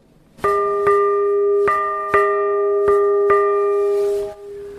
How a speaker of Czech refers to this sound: Ten zvon byl původně odlit pro Zbraslav, je mu pouze jenom 110 nebo 111 let a později byl potom odkoupen do kostela ve stráži nad Ohří, ovšem nebyl nikdy zavěšen a nakonec byl odkoupen farností Ostrov a dostal se sem.